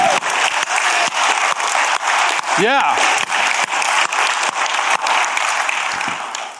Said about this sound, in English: Not this wimpy clap like the golfers, you know. But I mean, really, when you clap for the Lord, man, it should be everything in you clapping, right? You get into it. You put some zing into that thing, man.